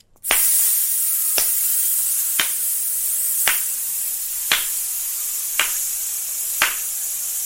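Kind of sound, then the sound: human body sound, forceful breathing out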